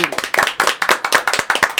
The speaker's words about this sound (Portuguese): Uma salva de palmas a ele.